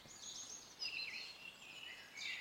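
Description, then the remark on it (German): Faint birds singing in a quiet forest in spring, later in the day, a steady overlapping chorus of thin, high warbling phrases with no one speaking. “Ihr hört vielleicht im Hintergrund so ein bisschen die Vögel singen.”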